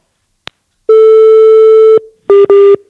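A phone line's busy tone after a dropped call: a sharp click, then a long steady mid-pitched tone followed by two short, loud beeps of the same pitch, with no voices.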